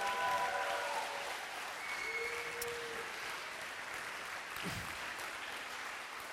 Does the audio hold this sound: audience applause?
yes